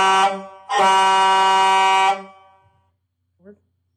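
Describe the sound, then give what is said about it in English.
A loud horn honks twice: a short blast followed by a longer sustained one lasting over a second, then a brief faint sound after a pause. “Just do the beep beep again, just that way you have multiple takes of it.”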